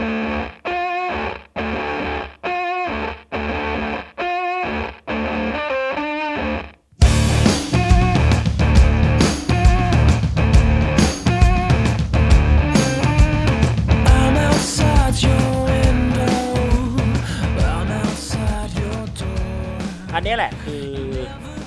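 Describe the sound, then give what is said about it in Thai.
Choppy, distorted bass guitar played through effects pedals to cover both low bass and guitar-like treble hits in a steady rhythm, each stab cut short by silence, then a loud, dense full band crashes in and plays on with heavy fuzz. “ก็คือการใช้เบสแล้วก็ใช้เอฟเฟกเพื่อช่วยให้มันครอบคลุมการเล่นสดทั้งเสียงทุ้มต่ำของเบสแล้วก็ เสียงแหลมที่ควรจะเป็นเสียงแบบกีตาร์อะไรเงี้ยไม่นับความตกแต่งเพิ่มเติมอะไรต่างๆ”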